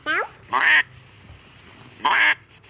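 animal, duck quacking

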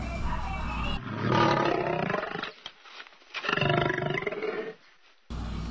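animal, lion roaring

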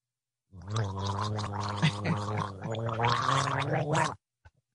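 human body sound, gargling

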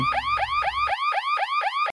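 sound effect, alarm sound effect

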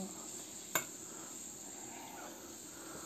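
food or drink, food sizzling

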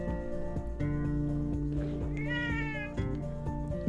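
animal, cat meowing

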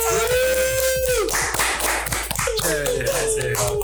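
crowd, applause

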